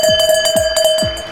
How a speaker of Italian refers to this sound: È ora di chiudere, è ora di chiudere, sono le 20. Senti la campana che suona, senti